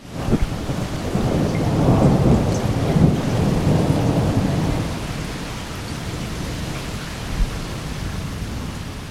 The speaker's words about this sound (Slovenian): Zvokov ne zbiram le v toplem zavetju doma. Tudi ko zunaj pošteno zagrmi, zgrabim diktafon preko dežnik.